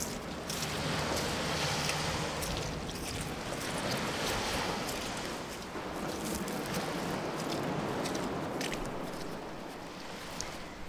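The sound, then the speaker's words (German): Steady rushing of ocean waves, a broad continuous wash of surf with gentle swells in loudness, fairly loud, with some wind buffeting and faint creaks; no voices. “Jetzt kann ich mir sehr viel vorstellen. Meeresrauschen, Quietschen, Wandern.”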